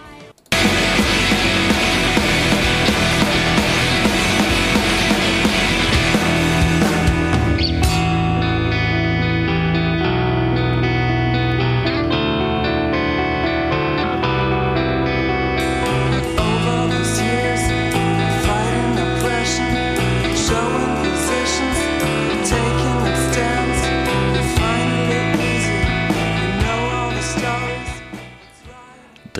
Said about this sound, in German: kommt aus Göttingen und hat sich dem Post-Hardcore verschrieben und machen dementsprechend viel Lärm. Da wir die Zeit haben, hören wir auch hier kurz rein.